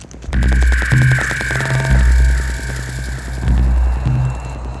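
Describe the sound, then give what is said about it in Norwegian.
A loud, steady airplane engine drone with a deep throbbing pulse that swells and recedes every second or so, and a sustained whining tone riding above it, from a plane flying home to Norway. No voices. “Frode kommer seg på flyet hjem til Norge”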